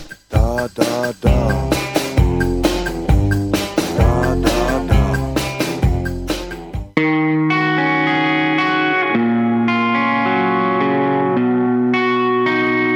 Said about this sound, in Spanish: mientras estábamos escuchando esta hermosa canción, Gentileza de la gente de Montevideo Music Group